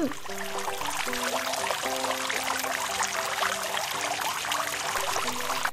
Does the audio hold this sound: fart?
no